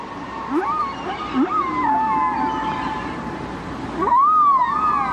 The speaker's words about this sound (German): Und hier leben meine Freunde, die Wale. Von Dezember bis August, um sich zu paaren, zu kalben, zu spielen, zu springen und um zu singen.